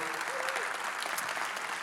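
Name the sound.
roaring audience applause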